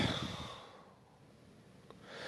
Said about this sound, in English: Breathing in that good ass prana, baby.